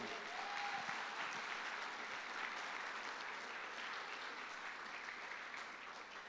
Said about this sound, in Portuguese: Você podia aplaudir a Deus, irmão.